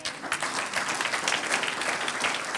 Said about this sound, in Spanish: Usted invoca ese nombre y el Señor obra de una, manera milagrosa y un aplauso al Señor.